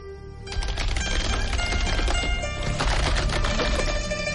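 Rapid, continuous keyboard typing as someone posts a tweet in the background of an Instagram Live, a dense clatter of clicks that starts after a brief moment and keeps going steadily and fairly loud, with no one talking over it.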